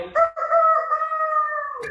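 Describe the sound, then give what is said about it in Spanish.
A person mimics a rooster's crow, a loud, sustained cock-a-doodle-doo call held for nearly two seconds with a wavering pitch, ending in a short breathy cutoff. “Ándale, así como el gallo.”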